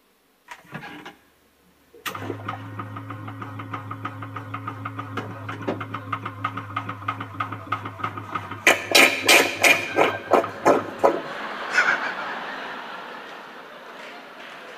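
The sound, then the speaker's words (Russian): A small water pump starts up and hums steadily, its motor whine joined by rhythmic knocking pulses, before a rushing, splashing wash of poured water takes over near the end. “And I, I have a picture of the pump here.”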